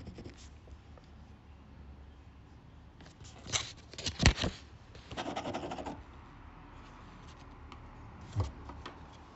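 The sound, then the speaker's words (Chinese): A ballpoint pen scribbles across paper, rapidly drawing many straight lines and forcefully filling in a square: soft scratching throughout with louder bursts of rapid, rough back-and-forth strokes in the middle and one short stroke near the end. No one speaks. “我现在在换一支笔，我现在拿的是一支原子笔，我来画一些圈圈，快速涂了很多的直线。用力的涂了一个方块，”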